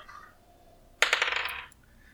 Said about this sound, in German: Diesmal kann ich auch per Hand würfeln, weil das ja keinen Bonus hat.